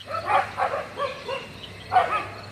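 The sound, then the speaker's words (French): A pack of stray dogs barks while chasing another dog, in a quick, uneven run of about five yaps, a short pause, then another burst, with no voices present. “Tu vois ce pauvre toutou là Il est poursuivi par une bande de chiens errants.”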